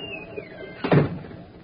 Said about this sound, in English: Shut the door behind you.